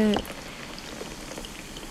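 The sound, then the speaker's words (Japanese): A carbonated drink is poured into a glass, giving a steady fizz of crackling bubbles that holds for about two seconds after a brief tonal blip at the very start. “これ流れでいくと多分瓶あペットボトル開きます氷を入れます炭酸が入ります”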